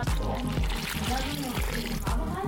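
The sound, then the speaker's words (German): Water pours steadily into a bowl of flour and salt as children make salt dough, a continuous splashing gush lasting a couple of seconds, with voices murmuring in the background. “Jetzt wird das Wasser zu dem Mehl und dem Salz gekippt.”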